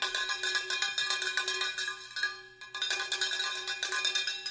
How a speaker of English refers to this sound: I brought my cowbell with me this morning. So imagine here you are trying to tell the lesson, and starting from five blocks away, it's faint, but then it gets louder and louder and louder.